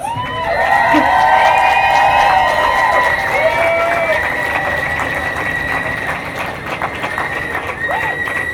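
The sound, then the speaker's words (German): Participants at a gathering break into loud, sustained applause for themselves, with cheering, high whoops and whistle-like shouts rising over steady clapping that continues for the whole stretch without fading much. “Gibt es mal einen großen Applaus an euch selbst.”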